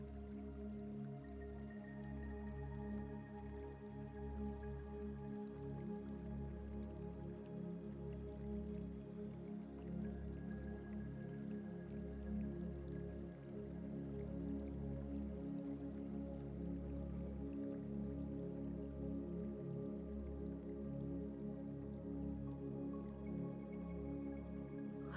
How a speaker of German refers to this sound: Und du siehst wieder den Bach, der ruhig und gleichmäßig vor sich hin plätschert.